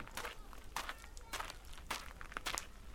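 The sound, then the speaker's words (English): Steady footsteps crunch over dry gravelly ground up a long, crooked path to desert campsites, a brisk walking rhythm of roughly six or seven steps, moderately loud, with faint scuffing between them. “We crunch up the long, crooked path to the campsites a few drought strangled trees throwing what little shade they can across candy colored nylon tents and muddy RVs.”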